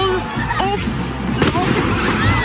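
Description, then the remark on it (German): Firecrackers bang and pop in a loud outdoor burst as the head of an effigy in Zurich explodes after exactly 57 minutes, with one sharp blast standing out midway, over a steady crowd murmur and scattered whistling tones. “Sagenhafte 57 Minuten dauert es, bis der Kopf explodiert.”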